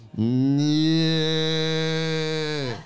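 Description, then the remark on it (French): A person imitates a caribou's call with one long, sustained, low bellowing moo-like tone, loud, holding steady for nearly three seconds before trailing off. “Non, je, je fais le cri du caribou, si vous voulez.”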